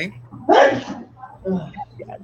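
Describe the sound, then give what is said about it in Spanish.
A single sharp, explosive sneeze bursts out loud, followed by softer, muffled vocal sounds in the background. “Hasta el perrito estuvo de acuerdo con eso, ¿no? Este, o alguien estornudó, una de las dos cosas.”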